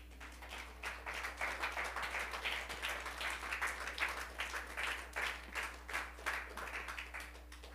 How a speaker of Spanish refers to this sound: ¿Cuánto le dan palmas al Señor, hermano?